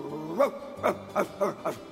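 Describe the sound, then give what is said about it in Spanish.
A stray dog barks furiously, five sharp, loud barks in quick succession over a low steady background tone, as it enters a room fearfully and barks at the other dogs there. “Pero a diferencia del primero, entró con miedo y les ladró con furia.”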